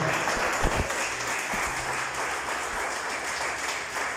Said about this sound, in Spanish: Denle un aplauso al Señor, por favor, en esta hora.